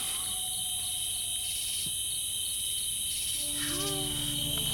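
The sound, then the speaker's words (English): A loud, steady insect drone fills the air, dense high-pitched buzzing of cicadas at night, with a few faint bird-like chirps and tonal calls appearing near the end. “Good night, cicadas.”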